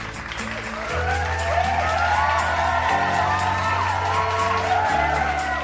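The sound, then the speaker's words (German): A crowd claps and cheers, with rising whoops and yells over dense, steady applause that swells after the first second and stays loud to the end, over a low humming drone. “Vielen lieben Dank für diesen wie immer extrem authentischen Applaus.”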